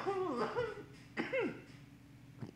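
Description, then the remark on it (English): A few stifled, muffled coughs, spaced about a second apart, tangled with breathy, laugh-like vocal sounds and no clear words. “I tried to hide that cough.”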